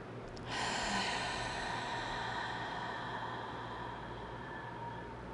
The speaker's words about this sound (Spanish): Hacemos la segunda, deja el aire entrar hasta llenar tus pulmones y luego deja el aire salir por la boca.